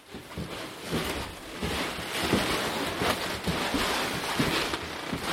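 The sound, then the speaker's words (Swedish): A wooden floor in a school classroom creaks and groans under a series of footsteps as someone walks, each step giving a short creak over a steady background hiss. No one speaks. “Och nu börjar vi närma oss och så här låter ju golvet när man går.”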